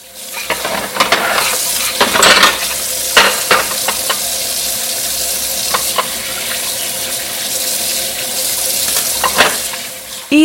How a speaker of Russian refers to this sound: Вещи стирала экологичным порошком.